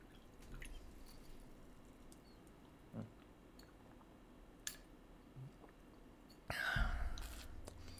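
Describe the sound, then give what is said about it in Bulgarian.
Someone sips water: a few faint wet clicks, then a louder slurping gulp near the end. No one speaks. “пиеш ли водичка?”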